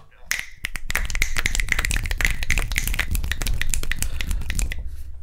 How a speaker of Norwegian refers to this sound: Jeg lurer på om vi skal gi en liten eh, knipsehyllest til eh, moren til i Dag.